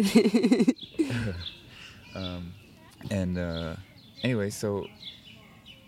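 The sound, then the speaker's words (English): Birds chirp faintly in the background with short, scattered high tweets on a warm, overcast morning, while a person speaks hesitantly in the foreground. “hopefully people can hear the birds in the background.”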